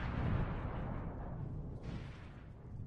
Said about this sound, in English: Clap it up. Bombs. Gunshots.